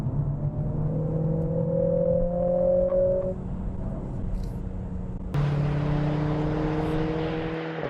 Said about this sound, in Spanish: Además de eso, por supuesto, este sistema especial en el volante con un escape, con un sistema de escape que podemos manejar al antojo para que suene más o menos y que hará las delicias de los amantes de la conducción más deportiva.